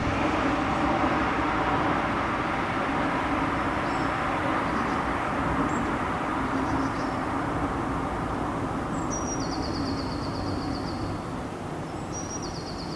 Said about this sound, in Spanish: Este es uno de los sonidos que nos han enviado y que están recopilando con el tráfico y los pájaros en la ciudad de París.